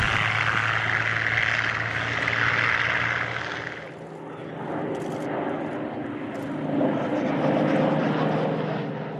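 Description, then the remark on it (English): A Spitfire propeller aircraft engine roars loudly and steadily, its throaty drone easing briefly partway through before swelling again as the plane flies by. No one speaks. “Well, apart from anything else, it had much more stretch in it, and it, it's a wonderful aeroplane to fly.”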